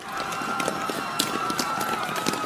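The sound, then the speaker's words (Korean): Many people running in a hurry, their quick footsteps forming a dense, irregular patter over a steady murmur of voices and crowd noise, with a few sharper, louder steps standing out: the residents of Thebez fleeing in alarm as Abimelech's army approaches. “더베스의 주민들은 멀리 아비멜렉의 군대가 오는 것을 보고는 놀라 급히 달아나기 시작합니다.”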